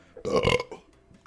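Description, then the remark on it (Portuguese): A single loud burp lasting about half a second, with a rough, voiced rumble, followed by quiet breathy noise as it fades out. “Então, cara, é vontade de arrotar, mano.”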